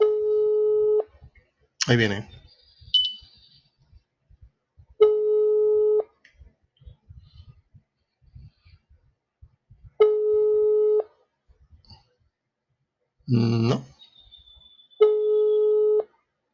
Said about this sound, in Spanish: Qué curioso, ¿no? Es el WhatsApp. Se corta una llamada, vuelves a marcar y no contestan, como si no, como si no hubiera nadie del otro lado.